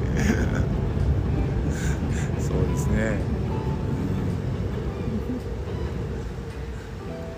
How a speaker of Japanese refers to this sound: あちょうど電車が通過してますね、ね阪急電車の阪急電車が皆様これが阪急電車の音でございます いい音ですね いい音ですね